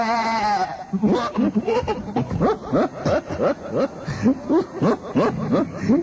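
A goat named Baltazar bleats, starting with one long quavering cry and then breaking into a rapid run of short, stuttering bleats that carry on steadily without any talking.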